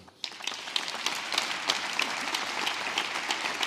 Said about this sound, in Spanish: Va también por ellos y pido a todos ustedes un caluroso aplauso.